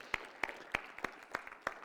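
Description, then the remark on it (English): An audience claps in a steady rhythm as a clap offering to the Lord, six sharp, bright claps evenly spaced about a third of a second apart, fairly soft, with a faint murmur of background noise and no voices. “Let's give the Lord a clap offering tonight, if you would please.”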